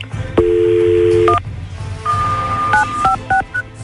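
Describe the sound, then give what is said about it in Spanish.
A phone number is dialed: a steady dual-tone note holds for about a second, then a quick series of short touch-tone beeps at shifting pitches, over a low background hum. “Ahorita le voy a marcar Enrique, ¿ok?”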